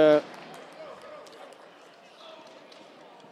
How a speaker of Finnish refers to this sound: Ja sitten kuuluu tuomari vihelys.